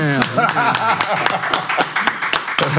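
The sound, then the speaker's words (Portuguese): Sharp hand claps land in a steady, even rhythm, roughly three or four per second, loud and crisp over a continuous murmur of voices underneath; applause on a Brazilian radio show for the greatest narrator in Brazilian radio history. “Os aplausos.”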